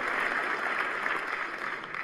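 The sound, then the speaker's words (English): Steady applause from a crowd during a political speech, a dense, even wash of clapping that holds at a constant level for about two seconds with no voices above it. “Oh, applause, applause.”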